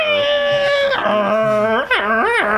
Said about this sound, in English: Uh, it's a dial up tone, folks, if you're not aware. Yeah, listeners born after 2000 would probably have, have no idea what this is. Um, it's the dial-up noise. Yeah. Yeah. Uh, so we're dealing with modems here, but yeah, we begin with that sound.